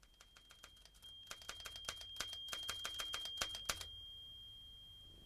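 A typewriter clacks as a letter is copied out, a quick, uneven burst of keystrokes, fairly loud, with a steady high whine in the background; the typing stops near the end, leaving a quieter hum.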